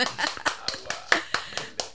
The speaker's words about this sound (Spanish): ¡Sí! ahí están aplaudiendo atrás aplaudan acá gracias